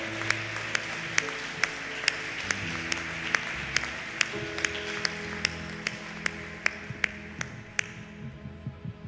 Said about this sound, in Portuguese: Um aplauso ao Senhor, amém. Ele merece, ele é digno, aleluia.